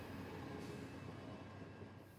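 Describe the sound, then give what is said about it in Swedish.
A steam locomotive rolls steadily past with a continuous, dense rumble of train noise that eases off slightly at the end, with no voices. “Och det fina lokomotivet svängde in på ett sidospår ångade förbi det stackars lilla tåget som stod där alldeles övergivet och hade snart lämnat det långt bakom sig.”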